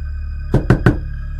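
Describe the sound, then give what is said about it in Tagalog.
Three quick, solid knocks on a kitchen door, evenly spaced, over a low steady background hum with no voices. “Sa pagkakataong iyon, sa pinto sa kusina na ito kumakatok.”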